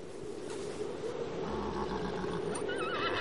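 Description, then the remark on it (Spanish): A horse whinnies near the end, a wavering, quivering neigh rising over a steady blustery background rush that fills the whole moment. “Pero a costa de los caballos.”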